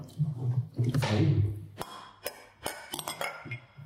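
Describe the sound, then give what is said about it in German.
Beer glasses clink together in a toast at Kolonnaden 72: a handful of sharp, bright knocks in quick succession, following a brief stretch of voices and rustling at the start. “So. Prost. Prost. Prost.”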